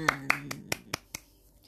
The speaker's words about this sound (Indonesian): Tepuk tangan